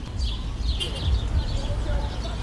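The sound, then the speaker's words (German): A dense chorus of about 30 small birds chirps and twitters continuously from a single tree in New York, over a steady low rumble of outdoor background noise. “Ich weiß nicht, ob man das auf der Aufnahme hört, aber hier sind unglaublich viele Vögel in einem Baum.”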